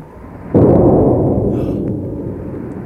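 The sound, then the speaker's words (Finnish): A single cannon shot fired from a ship at sea booms out suddenly, a heavy blast followed by a long, rolling rumble that slowly fades. It is heard alone, with no talking. “Se, se oli tykin laukaus.”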